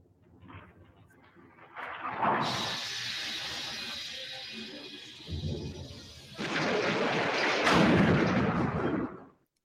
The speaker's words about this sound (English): I went and I got the audio from both of them so we can compare them. Nice. Um, so I'm going to play this for you. This is the door breach uh, in Star Wars: A New Hope when the stormtroopers uh, breach the Tantive Four. This is what it sounds like.